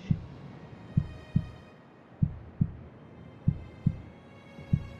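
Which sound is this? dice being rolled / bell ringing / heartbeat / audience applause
heartbeat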